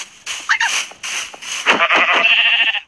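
Minecraft white sheep bleating: a few short, wavering, nasal bleats in quick succession over a steady hiss of game noise, with no talking.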